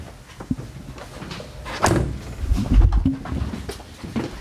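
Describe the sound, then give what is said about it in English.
A car door swings and clunks shut with a solid, deep thud, followed by a brief low rumble and faint rattles; no one speaks. “Um, Let's have a look in the boot, and it's, it's, it's clunked this door as well to hear the.”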